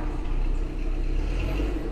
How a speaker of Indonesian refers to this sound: Kalau mobil proyek kenapa gitu ya bunyinya?